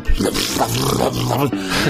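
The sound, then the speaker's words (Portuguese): A voice imitates loud, aggressive snoring: a harsh, rattling, throaty roar sustained for about two seconds, wet and gurgling, with a brief break near the end before it resumes. “Sabe aquele peido molhado? Assim, assim? Sim. Era eu roncando.”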